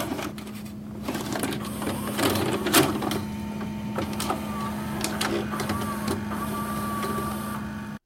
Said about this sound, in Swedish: det är ju en VHS-spelare. När man stoppar in det, stoppar ah, in ja, bandet